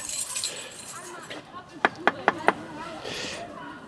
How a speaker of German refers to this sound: Du hast jetzt geklopft, damit genau. die Okapis wissen, dass wir kommen. Ja, genau aus dem Grund.